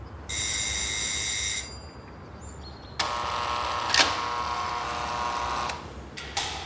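A visitor rings the doorbell of an attic apartment, which buzzes twice: first a short, steady electric tone, then after a pause a longer, harsher rasping buzz with a click partway through. No one speaks.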